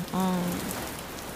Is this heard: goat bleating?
no